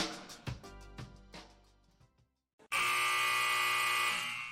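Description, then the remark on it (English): A loud, sustained arena buzzer, the final buzzer of a basketball game, blares for nearly two seconds after a brief pause, preceded by a series of decaying percussive hits or bounces. “The sound of the final buzzer means it's hangover time so grab a drink”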